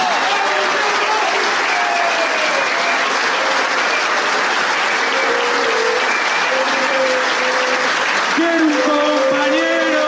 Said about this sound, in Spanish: Un aplauso grande para él.